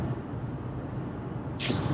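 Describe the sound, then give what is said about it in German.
Steady low rumble inside a car driving to Berlin, a constant droning road noise, with a sudden burst of airy hiss near the end. No one speaks. “Aber glaubst du, dass es auch total dumm ist, dass wir uns darüber aufregen, während wir im Auto sitzen und nach Berlin fahren, anstatt dass wir im Zug sitzen und nach Berlin fahren?”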